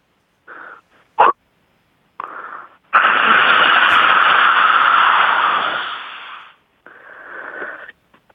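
A voice imitates a cheap coffee machine at a Korean barbecue restaurant dispensing after its button is pressed: a few short breathy puffs and a sharp click, then a long, steady, loud hissing whir, ending with a softer hiss.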